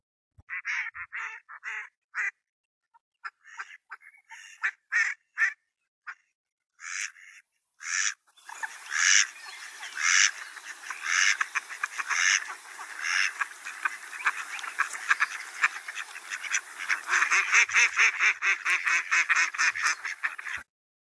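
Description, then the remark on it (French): A duck quacks in short, harsh bursts, scattered at first, then building into a dense, continuous chatter of rapid quacks that sounds like several ducks calling together, loud, with no talking. “C'est le canard qui crie comme ça.”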